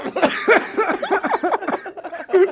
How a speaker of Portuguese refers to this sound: Não faz o Monark rir que ele tosse